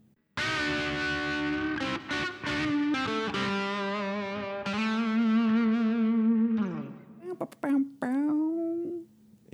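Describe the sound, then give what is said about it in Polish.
A short, loud news segment jingle of heavily processed, distorted tones that sound almost like an effected voice, sustained for several seconds before breaking into a few quick, choppy bursts at the end. “Dobrze, no to czas na dżingielek z tej okazji.”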